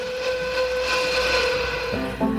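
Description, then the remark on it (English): An eastbound steam train's whistle sounds a long, steady, tonal blast over a rumbling rail background, then shifts to a second chord near the end, loud as the train approaches. “Is that an easterly train I hear?”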